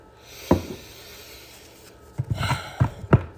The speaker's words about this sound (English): I'm going to spray some Florida water around me and around the cards